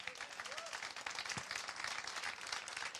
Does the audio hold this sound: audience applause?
yes